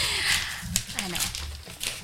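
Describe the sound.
Gift wrapping paper crackles and rips in a series of bursty tears as a present is unwrapped, with people talking softly underneath the rustling.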